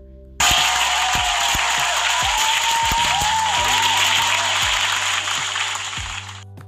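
A sudden burst of loud, dense clapping from a crowd that holds steady for several seconds, then thins and fades out at the end.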